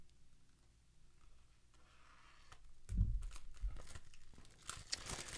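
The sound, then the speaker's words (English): Plastic wrapping on a record is torn open: quiet at first, then a burst of sharp crinkly rips and crunching that continues in uneven spurts, with no one talking. “I'm going to open it. Of course, I want to open it.”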